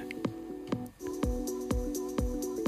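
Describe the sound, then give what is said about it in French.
Electronic dance club track, slightly faster than 120 BPM, with a steady four-on-the-floor kick drum thumping about twice a second under sustained synth chords and crisp hi-hat ticks, fairly loud and with no vocals, featuring the usual club gimmicks such as a build-up. “C'est un peu plus rapide que les 120 BPM. Il y a tous les gimmicks, c'est le.”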